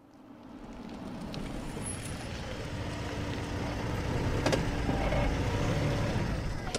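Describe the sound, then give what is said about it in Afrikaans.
A car engine rumbles, growing steadily louder as the car pulls up behind a shop and slows to park, with a low continuous drone and faint road noise and no voices. “Ek gaan agter die winkel parkeer.”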